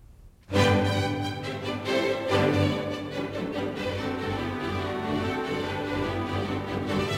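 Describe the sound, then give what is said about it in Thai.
Orchestral dance music from Tchaikovsky's ballet The Nutcracker bursts in after a brief quiet moment and carries on full and loud, with rich layered strings and winds playing steadily to the end. “ลำดับต่อไปจากวิกเอนคอนเสิร์ตเย็นนี้ ฟังเพลงเต้นรำไพเราะ 3 บทจากดนตรีบาเล่ The Nutcracker ของชิกอฟสกี้ค่ะอเชิญฟังค่ะ”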